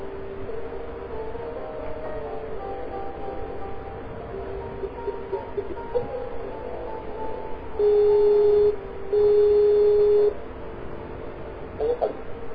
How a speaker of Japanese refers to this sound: ちょっと待ってくださいね。今からスカイプで呼びます。